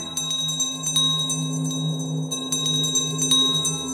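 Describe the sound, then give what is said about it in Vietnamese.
A bell rings rapidly and insistently as a call for help, with quick, uneven strikes and a lingering metallic ring, over a low steady hum in the background. “Nếu ông Dương mà chú ý Thì hẳn là sẽ thấy cái chuông rung lên bẩn bật cầu cứu”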